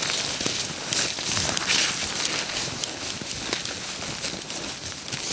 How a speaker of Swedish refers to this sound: Det är klart att det låter ganska så mycket när jag kommer gående här.